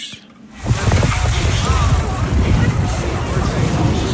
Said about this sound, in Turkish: Sokak sesleri Amsterdam'dan. Evet tramvay